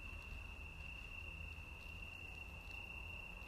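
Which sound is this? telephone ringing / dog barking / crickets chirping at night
crickets chirping at night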